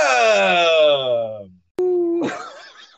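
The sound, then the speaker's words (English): A person imitates a howl: a loud, long voiced tone that slides steadily downward in pitch and fades out, followed by a sharp click, a brief steady hum, and a breathy, laugh-like burst. “Did you just howl?”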